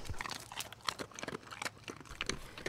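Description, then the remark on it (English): A dog crunches on a training reward treat after following a hand circle, with a quick series of sharp, irregular crackly bites and chews at moderate volume, no voices over them. “And when he has come all the way around, good boy, you tell him good boy and you let him have the treat.”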